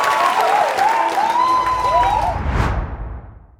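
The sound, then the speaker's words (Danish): In TV2's live broadcast from the Centropa office, a crowd erupts in loud cheering and applause as the Danish film Another Round (Druk) is announced as winner of the Oscar for best foreign film, with excited shouts and rising whoops over dense, steady clapping that swells briefly and then fades out. “Vi hørte her jubelen fra TV2 sin livesending fra Centropa-kontoret, i det det blev annonceret, at den danske filmen Druk et glas til havde vundet Oscar for bedste utenlandske film.”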